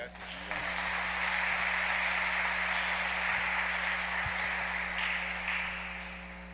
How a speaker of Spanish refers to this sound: Bienvenido Padre, un aplauso para el Padre.